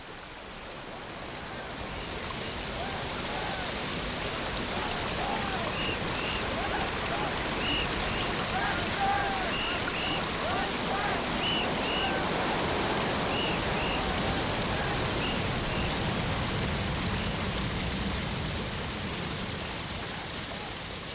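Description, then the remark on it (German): The famous Seven-Step Waterfall along the path down to the village of Matsunoyama: a steady, dense rush of water fills the whole clip, fading in at the start and holding evenly throughout, with a few faint high chirps drifting over it. No voices. “den Weg entlang des berühmten Sieben-Stufen-Wasserfalls zum Dorf Matsunoyama hinabsteigen”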